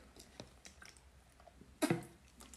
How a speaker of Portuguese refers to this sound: Desculpem que eu tenho que beber água.